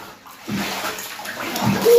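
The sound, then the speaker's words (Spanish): Water pours and sloshes steadily, a continuous splashing rush like a tub filling, growing a little louder toward the end, with no voices. “Y bueno, saca la espuma, tira la espuma para el costado.”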